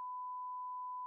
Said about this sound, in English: Don't worry, numbers will all be bleep.